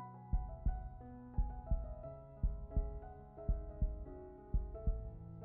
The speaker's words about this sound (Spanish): siente el latido de tu corazón.